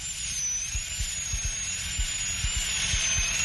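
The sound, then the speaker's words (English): A dental drill whines at a steady high pitch over a constant airy hiss as a dentist drills out an old filling in a tooth, fairly loud, with soft low thumps recurring about twice a second underneath and no voices. “I'm drilling out the old filling now.”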